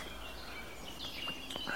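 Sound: eurasian blackcap song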